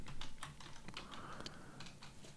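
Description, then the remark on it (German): Rapid, irregular clicking of keys on a computer keyboard, a steady flurry of light taps, fairly quiet, with no voices. “Ich höre dich tippen.”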